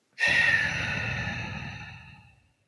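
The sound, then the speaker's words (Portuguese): A single deep, breathy sigh as a person breathes in and lets the air out, fairly loud, starting abruptly and trailing off slowly over about two seconds, with a faint voiced tone in it. No one speaks. “Então, muitas vezes eu comento com alguém, fala, é, a gente fala, respira, e a pessoa simplesmente inspira e faz assim.”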